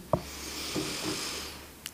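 A long, deep breath drawn in through the nose during a guided breathing exercise, a steady airy hiss lasting nearly two seconds, with soft clicks at the start and end and no talking.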